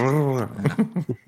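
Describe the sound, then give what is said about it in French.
A voice imitates a die thrown into a dice tower and clattering down: a drawn-out vocal sound, then about five short, clipped "tac"-like clicks in an uneven quick rhythm, fairly loud. “où on jette le dé et ça tac tac tac”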